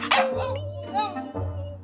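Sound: puppy barking and yipping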